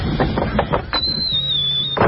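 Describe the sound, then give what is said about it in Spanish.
A door creaks open in a cabin during a heavy storm, with a thin, high-pitched squeal drawn out for about a second over a low groan, preceded by a few soft knocks or shuffles. No one speaks. “Es una puerta que se abrió.”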